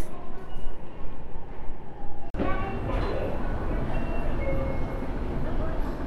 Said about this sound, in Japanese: では今から駅に向かって電車に乗るのでちょっと切ろうかなはい駅に着いたので電車に久しぶりに乗ります